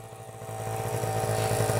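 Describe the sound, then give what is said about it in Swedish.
A small two-stroke Honda MT5 moped engine runs steadily, its buzzing idle rising slightly in loudness over a couple of seconds, heard alone. “Ja, Synd Honda MT5.”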